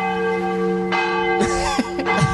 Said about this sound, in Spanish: Esa es la nueva campana de Sinners.